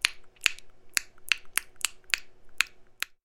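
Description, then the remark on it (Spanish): A series of about nine sharp, crisp mouth clicks made for echolocation, evenly paced roughly every half second, bright and snappy in tone with nothing else heard between them. “Es decir, crearse una imagen mental de todo el espacio 3D alrededor, o por lo menos el más cercano a la persona, exclusivamente a partir del el sonido sonidos que pueden ser el golpe con el bastón o chasquidos que hacen con la boca.”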